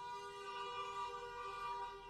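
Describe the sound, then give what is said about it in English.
A siren, rung outside by upset people, sounds in one steady, unbroken tone, rich with harmonics, holding the same pitch throughout at a fairly low level, with no voices over it. “see people are so upset they're uh, ringing sirens outside your.”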